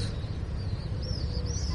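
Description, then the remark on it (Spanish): Birds chirp outside a window at dusk in a few thin, high, wavering calls, fairly faint, over a steady low rumble of background noise with passing cars. No one speaks. “Pájaros, coches que pasan, niños,”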